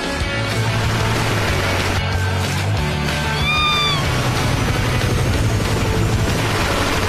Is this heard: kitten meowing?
yes